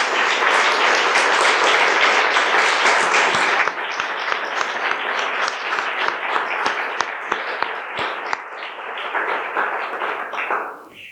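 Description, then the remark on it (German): Audience applause at the International Youth Library in Schloss Blutenburg, welcoming authors David Almond and an author, loud and dense for the first few seconds, then thinning into scattered individual claps that taper off toward the end. No one speaks over it. “Bitte Applaus für, die Dasein.”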